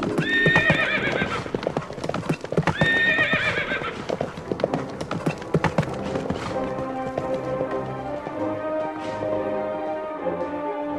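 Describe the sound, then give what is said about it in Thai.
A herd of several dozen wild horses, following a rich man's horse back to his house, clops along in a steady, busy trot while loud, shrill neighs ring out twice early on, the hoofbeats continuing underneath with some background music. “อยู่มาไม่ช้าไม่นาน เจ้าม้าแสนรู้ของเศรษฐี ความจริงแล้วมันแค่หลุดออกมาจากคลอก เพื่อไปเที่ยวในป่า ก็เลยไปอยู่ร่วมกับฝูงม้า เสียหลายวัน อยู่ๆก็เกิดคิดถึงบ้าน จึงได้กลับมายังบ้านของเศรษฐีพร้อมด้วยม้าป่าอีกหลายสิบตัวตามมาด้วย”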